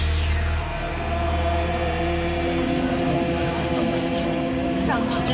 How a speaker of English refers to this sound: I think I can hear somebody with a temple gong or uh, a singing bowl or something like that.